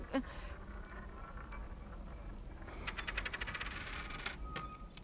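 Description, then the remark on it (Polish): Coins counted out as exact change clink and drop one after another in an irregular flurry of bright metallic taps, with a denser jingling burst partway through, over a low steady background hum. “Ale bardzo proszę, tramwaj mi ucieknie. Mam naprawdę, mam równo odliczone.”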